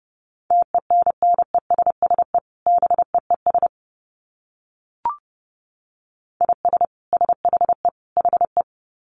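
Fast Morse code at about 30 words per minute: a steady mid-pitched beep keyed in rapid dots and dashes, with two bursts split by a silent gap and a single soft click.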